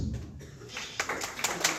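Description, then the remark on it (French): Scattered hand claps start up after a moment and grow into uneven, sharp bursts of applause, with a low murmur of voices underneath, as an audience of high school students at an event applauds the head of La Pléiade. “Applaudissez pour Août.”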